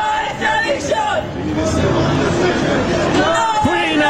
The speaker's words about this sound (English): Supporters waiting outside the courthouse where he's due next, chanting, No!